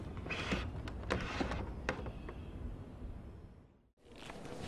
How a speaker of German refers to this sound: Aber stattdessen kroch er näher zur Tür und versuchte diese so leise wie möglich ein Stück zu öffnen um sehen zu können, was dort vor sich ging.